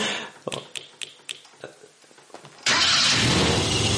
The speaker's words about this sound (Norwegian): Og eh, så hørte hun at bilen startet, og det var den rødhårede gutten i baksetet som hadde klatret over setet.